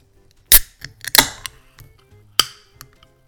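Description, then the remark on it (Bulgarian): A beer bottle being opened: several sharp metallic clicks and clinks, with a loud snap near the start and another crisp crack later, then a few faint taps. No voices. “И така, аз вече си отворих една.”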